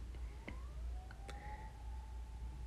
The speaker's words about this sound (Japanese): あごめんちょっと今なんかピーポー来ちゃったね うんちょっとピーポー待ちましょうかよし行きましたね